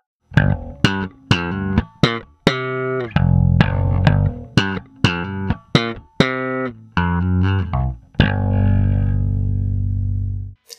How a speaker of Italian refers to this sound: Sigla.